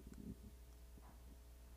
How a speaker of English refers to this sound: Ooh, that was my stomach rumbling. I don't know if you heard that, but yeah, that's proof that I'm that I'm hungry.